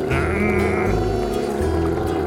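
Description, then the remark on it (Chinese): A long-haired dog growls angrily, a low, rough rumbling snarl that holds steady for about two seconds, loud and with no talking over it. “于是长毛狗装出更凶狠的样子，不断地发出生气的声音。”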